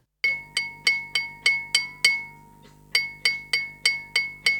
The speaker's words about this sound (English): So what is hitting the glass there?